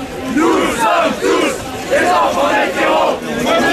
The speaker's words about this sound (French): la contestation se fait aussi entendre dans la rue.